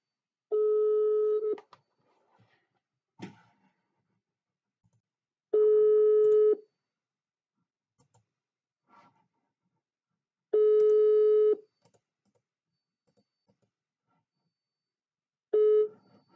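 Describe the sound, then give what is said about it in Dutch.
An outgoing call's ringback tone, played on the caller's phone, sounds four times, each steady electronic burst lasting about a second and spaced several seconds apart, with soft faint clicks and noises in the quiet gaps. “Dus ik ga haar gewoon nu bellen. Eens even kijken. Hier op mijn telefoon. Ja, daar gaat hij.”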